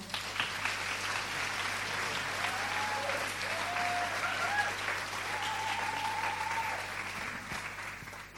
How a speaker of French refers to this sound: Et puis pour les encourager, parce que c'est un peu stressant d'être journaliste derrière des buzzers, je vous propose qu'on les applaudisse une petite fois.